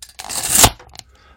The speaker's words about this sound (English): That is the noise of uh, a tape measure retracting at speed.